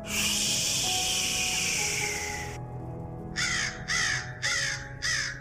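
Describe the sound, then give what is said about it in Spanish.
A raven gives four harsh, evenly spaced caws, following a few seconds of steady rushing hiss that cuts off abruptly. “De un golpe abrí la puerta y con suave batir de alas entró un majestuoso cuervo de los santos guías idos.”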